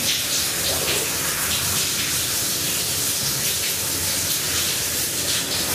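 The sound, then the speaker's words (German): Water drops dripping and splashing in a dense, steady patter, a continuous bright hiss of water with faint individual splashes flickering through it. No one speaks. “Jetzt muss ich sagen, Professor Campbell Rockout, dass jeder Tropfen einen eigenen Ton hat und eine eigene Stärke. Hören Sie das?”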